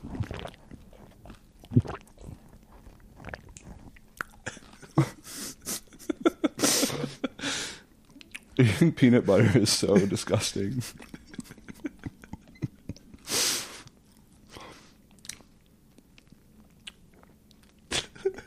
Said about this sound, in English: like another bite of my toast or so. Feel, feel free. Yeah. Well, ASMR never hurt anybody. Yeah. yeah. that was a great one. Great, mm. great bite, man. Thank you. It was good bread.